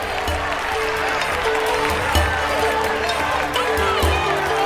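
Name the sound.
crowd cheering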